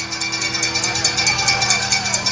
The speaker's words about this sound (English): The cowbell ringing right in front of me.